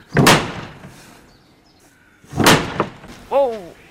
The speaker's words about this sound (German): Was da so mächtig scheppert, das ist ein Türklopfer, wie man auch von anderen Bogen kennt, aber ein ganz besonderer, ein Ring von 10 cm Durchmesser, Schmiedeeisern mit einem Sittich da drinne.